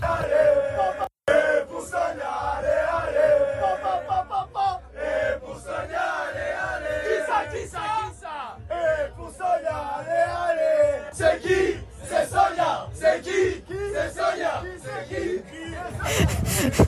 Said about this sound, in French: J'ai même vu passer une vidéo où les supporters euh, tricolores euh, chantent et hurlent ton prénom comme si tu étais devenu la mascotte de l'équipe quasiment.